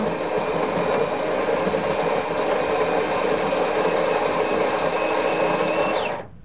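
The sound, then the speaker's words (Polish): An espresso machine's built-in grinder grinds coffee beans for one cup, set to 230 ml, whirring loudly and steadily for about six seconds, a dense buzzing grind with no talking, then cuts off abruptly at the end. “Teraz kawa jest mielona.”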